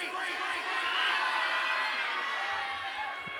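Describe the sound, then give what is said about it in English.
A large crowd yells the names of their countries all at once, a dense wall of overlapping shouted voices that stays loud and steady for a few seconds with no single voice standing out. “If you're proud of your country, after free, shout out your country as loud as you can.”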